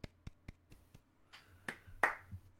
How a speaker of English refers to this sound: A round of applause.